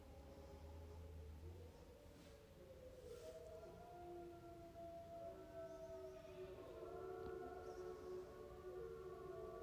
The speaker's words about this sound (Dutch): Ik hoop dat je het kan horen. In de verte zijn de wolven aan het huilen.